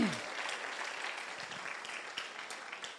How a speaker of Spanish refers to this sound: Vamos, den un aplauso a Jesús si tú quieres la verdad de Dios.